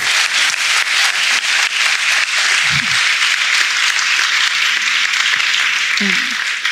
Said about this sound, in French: voilà déjà félicitations à nouveau. Euh, applaudissements. applaudissements voilà.